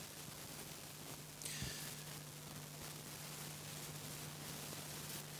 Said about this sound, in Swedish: Oj, är det något som brummar eller? Är det monitorn? Kan man stänka monitorn?